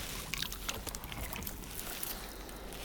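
Water sloshes and laps against the hull of a blue kayak as it is let into the water and settles, with small splashes and knocks over a steady wash, and no voices.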